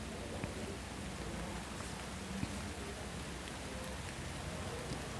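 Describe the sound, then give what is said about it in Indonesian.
Light drizzle patters softly against the window of a bus travelling on Jalan Pramuka toward the Rawamangun flyover in Jakarta, a steady low hiss with occasional tiny taps of drops, quiet and even throughout with no voices. “Gerimis pertama turun perlahan, membasahi jendela.”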